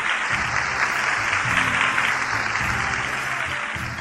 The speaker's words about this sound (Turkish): Hepinize teşekkür ediyoruz. Kocaman alkışlar.